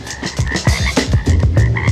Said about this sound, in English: 很多人听到这儿都觉得很有趣。我没有在别的 hip hop 单曲里听到过他们采样青蛙的声音。